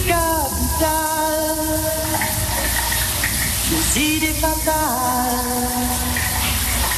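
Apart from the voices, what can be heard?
shower water running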